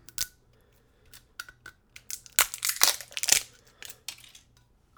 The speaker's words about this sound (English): Okay, moment of truth. Let's open this bottle. So, going for the shrink wrap. Oop. I got part of it. Hang on. Here we go.